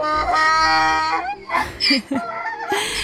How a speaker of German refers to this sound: weißt du, was das für ein Tier ist? Ja, ein Esel.